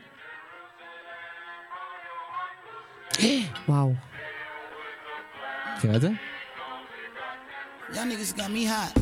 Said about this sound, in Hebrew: כל הלחן של השיר הזה בעצם, כל הביט, כל הבייסליין, הכל מתבסס על הלחן של התקווה.